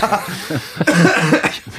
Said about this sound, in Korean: 지금 기침 소리는